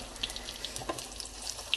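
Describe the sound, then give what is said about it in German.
Tomato sauce sloshing and bubbling in a hot pan, a steady wet sizzle with scattered small splashes and pops, one brief louder slosh midway, no voices. “Das ist die Tomatensoße, die ja gerade ein bisschen rumschwappt.”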